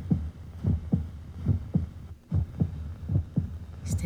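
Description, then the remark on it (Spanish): A steady heartbeat thumps in a low, muffled rhythm, about two beats per second, with a brief pause midway and a soft hum underneath. “Tu corazón late en perfecta sincronía.”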